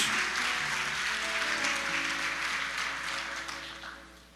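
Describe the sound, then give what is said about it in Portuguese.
Sustained applause for Jesus from a large crowd, dense and steady for several seconds before gradually tapering off, with a faint tonal murmur underneath. “Quem pode aplaudir Jesus por isso, irmão?”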